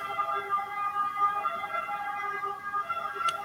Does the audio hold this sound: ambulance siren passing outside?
yes